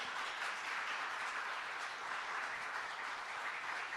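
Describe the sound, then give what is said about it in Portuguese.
An audience applauds God, many hands clapping together in a dense, steady wash of sound that holds an even loudness for the full four seconds, with no voices rising above it. “Creia nisso, dá uma salva de palmas a Deus.”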